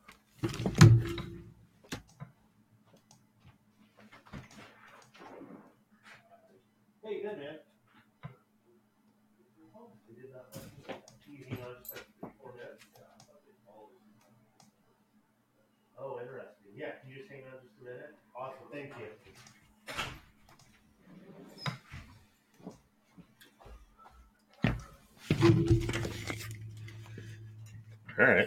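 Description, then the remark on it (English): A door is answered when somebody comes to it: opened with a solid thump, followed by shuffling, clicks and faint muffled voices in the background, then closed again with a heavy thud near the end. “somebody's at my door. Hang on.”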